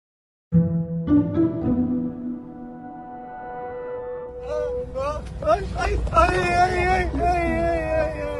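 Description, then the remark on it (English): Palestinian civilian men, stripped naked and bound, cry out in pained, wavering wails while being dragged and tortured by men in military uniform, in a video; several voices overlap and rise in the second half over a steady low rumble with no clear words. “You're hearing the cries of those men.”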